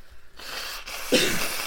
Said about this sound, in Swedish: Snyter länge för fan.